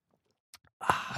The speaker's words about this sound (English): I'm just going to console myself with a nice long sip of cappuccino.